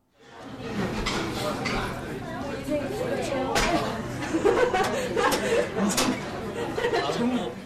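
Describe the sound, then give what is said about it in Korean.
A busy restaurant dining room at a busy hour with many customers, full of overlapping chatter and occasional laughter from many diners, with scattered clinks and clatter of dishes cutting through the steady crowd murmur. “지금 여기는 어디일까요? 네, 식당 음식점이군요.”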